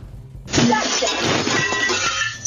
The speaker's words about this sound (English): She punches through the window.